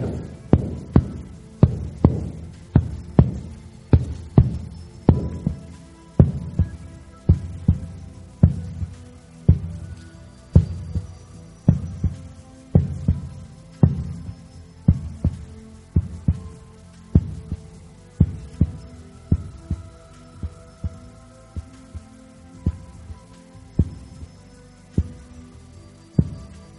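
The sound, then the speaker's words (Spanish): A steady, deep heartbeat thumps in a regular rhythm, roughly one beat per second, with a low hum beneath, the pulses growing slightly softer toward the end. No one speaks. “Los latidos se difuminan.”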